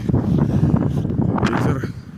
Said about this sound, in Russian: ветер. Так, прошу отнестись с пониманием, как говорится.